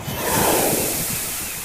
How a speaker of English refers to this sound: Splash! The gulls just couldn't resist Tufty's water spray. All took their turn to have a power shower in the sky.